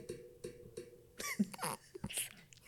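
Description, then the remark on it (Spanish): Someone mimics a creaking door opening with their voice: a few low, rasping creaks at first, then harsher, breathy bursts of noise, all fairly quiet. “Está haciendo el ruido de la puerta.”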